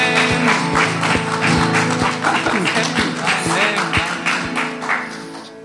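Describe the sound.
A church audience at a Christmas service applauds steadily and loudly, with some claps falling into a regular beat, while sustained musical tones and voices calling amen and hallelujah carry on underneath, the clapping thinning slightly toward the end.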